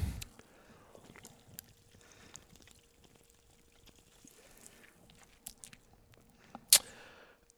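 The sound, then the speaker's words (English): Quiet sips and swallows of a cold Pepsi from a can, with soft wet mouth clicks throughout and a sharp smack near the end; no one speaks. “I'm going to take my first sip. We just. Yeah. Sip of Pepsi for the working man.”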